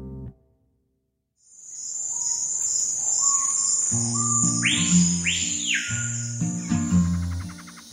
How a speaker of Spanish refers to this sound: Cuando el cuerpo y la mente piden descanso, es usual pensar en la naturaleza, sea la playa y el inmenso mar o la tranquilidad de las montañas, con el sonido de las aves durante el día y el de los grillos en la noche.